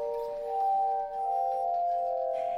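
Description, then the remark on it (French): A glass harmonica of 37 rotating glass bowls, turned by a pedal-driven axle and played with water-moistened fingers, sounds sustained, crystalline tones, several pure pitches ringing together and gliding slightly into a new chord partway through, steady and moderately loud with no voices. “Elle approche délicatement ses mains et l'harmonica se met à chanter. Un son cristallin s'élève alors.”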